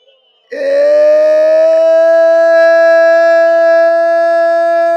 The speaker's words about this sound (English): shall I hear you sounding your shofar in the spirit, my God, your, your sound of the Lord.